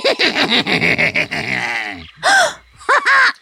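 A female voice lets out a sharp, startled gasp of shock, loud, followed by a couple of quick breathy catches, coming right after a stretch of a little man's rhythmic, cackling laughter.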